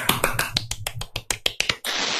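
A quick, steady run of about a dozen crisp hand claps, ending in a short burst of broad, hissy noise.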